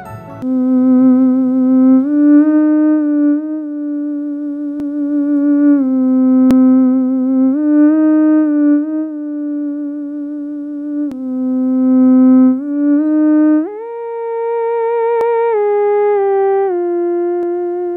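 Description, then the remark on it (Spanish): A theremin plays a slow melody alone: one continuous, gliding tone with a wavering vibrato, swooping smoothly between pitches and rising higher near the end, steady and fairly loud throughout. “¿Quieres escuchar a Carolina Eich interpretando el teremín?”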